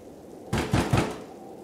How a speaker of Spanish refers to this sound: Siendo la madrugada del domingo, escuchó que llamaban a la puerta de su casa.